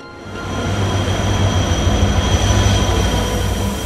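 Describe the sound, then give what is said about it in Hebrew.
A passenger train pulls into Ashkelon railway station in Israel at 6 in the morning, a steady, loud roll of wheels on track with a thin high whine running through it and no voices. “נוסעים יקרים, הרכבת תיכנס לתחנת אשקלון.”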